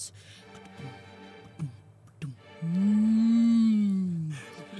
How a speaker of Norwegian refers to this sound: Og så var, var det ei ku? Nei, det var en bjørn. Du hører en ordentlig bjørn. Å, det var en bjørn!